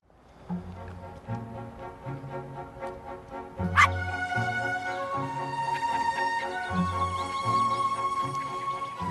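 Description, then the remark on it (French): A small white dog running alone and playing in a field barks and yips over and over in a quick, uneven rhythm, with a sharper yelp partway through and a faint whimpering tone underneath. “son petit chien blanc qui s'appelle Flucky, qui court seul et qui s'amuse dans le champ”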